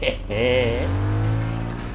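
A car engine revs up, its whine climbing in pitch for a moment before settling into a steady, loud low drone that holds for the rest of the two seconds.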